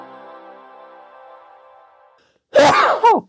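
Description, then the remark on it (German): A tonal music bed fades out, then after a brief pause a single loud sneeze bursts in, a sharp breathy intake followed by an explosive 'achoo' with a quick tail. “Und es ist der erste Dienstag im Monat und hier hat gerade natürlich niemand wirklich genießt”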